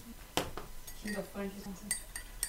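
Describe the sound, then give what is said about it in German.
A sharp ceramic clink of a cocoa mug set against a surface as someone takes a sip of cocoa, followed by softer clinks and faint murmured tones, with a couple of light taps near the end. “Ich mm, werde noch einen Schluck von meinem Kakao trinken.”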